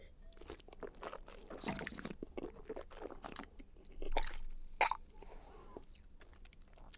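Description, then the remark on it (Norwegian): Wet mouth sounds as a sip of red wine is swished and sloshed around the mouth while wine tasting, in a run of gurgling bursts, ending with a sharper spurt. No one speaks. “Men nå hørte du hvordan jeg skylte vin rundt i munnen.”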